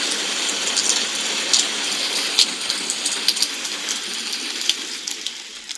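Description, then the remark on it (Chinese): Steady rain falls around a small wooden cabin with a dense, even hiss, broken by occasional sharper drips and taps of drops striking a surface. No voices are heard. “小蜗牛在下雨天之后也出来了，对不对啊？”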